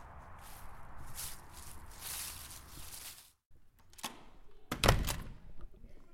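Footsteps crunch and shuffle against rustling outdoor ambience as someone walks in through the door of the University Hospital for Large Animals in Tostrup on an autumn day in October, then the sound cuts off abruptly as if a door shuts, followed by a few scattered thuds and one sharp, loud knock indoors.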